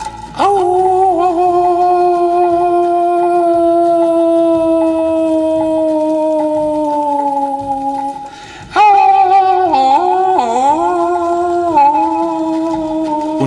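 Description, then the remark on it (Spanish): A jackal howls in the distance in two long, drawn-out cries, the first holding a steady, slowly falling pitch and the second wavering up and down, loud and clear with no other sounds. “chacal aullaba a lo lejos.”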